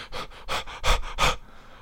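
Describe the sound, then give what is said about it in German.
A person pants rapidly, about six or seven quick, breathy huffs in an even rhythm, before trailing off into quiet. The voice seems to be imitating panting done while sitting in a test booth as a breathing exercise. “Ich setze mich in diese Kabine rein ja, äh, und muss dann erstmal hecheln.”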